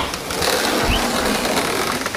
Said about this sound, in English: you were close, but it was a sliding glass door.